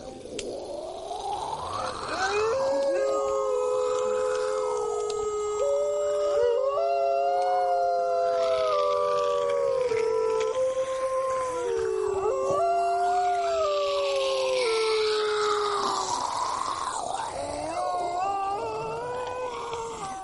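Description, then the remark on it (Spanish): A record of a Chinese couple imitating animal sounds: voices imitate animal howls, long wavering cries rising and falling and overlapping one another, loud, continuing steadily for the whole stretch with no talking. “Sí, era un disco de, de, una pareja de chinos que imitaban como sonidos de animales.”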